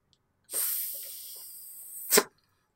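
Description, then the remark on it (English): A person makes a sustained, breathy hiss like a snake for nearly two seconds, ending in a short, sharper burst of air. No talking. “uh, there was one other thing, and your hissing distracted me from it.”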